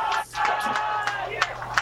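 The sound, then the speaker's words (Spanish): An audience applauds enthusiastically as Steve Jobs appears on stage, a dense, steady wash of clapping mixed with cheering voices. It stays loud for the whole stretch, apart from a brief dip near the start. “Dice que la gente está, está aplaudiendo efusivamente por la aparición de Steve Jobs, que parece muy agradecido.”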